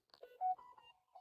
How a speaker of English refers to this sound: sorry my phone is beep beep beeping if you guys can hear that